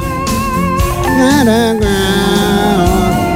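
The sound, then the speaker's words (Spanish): A rock band plays at full volume, with a slide guitar gliding in among the other guitars, its notes bending and sliding smoothly in pitch over a steady driving rhythm. “Acá entra la del slide.”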